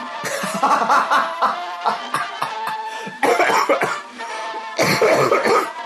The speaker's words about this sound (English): this might you might just want to skip this one. Just I mean, unless your kink is listening to someone cough. Worst ASMR ever.